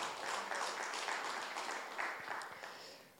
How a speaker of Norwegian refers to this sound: Ja, det fortjener en applaus, altså.